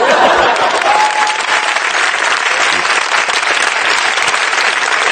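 An audience claps steadily throughout, a dense, loud wash of many hands with no pauses, with a brief whistle-like tone near the start and faint voices mixed into the clapping.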